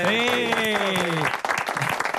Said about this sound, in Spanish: Un aplauso.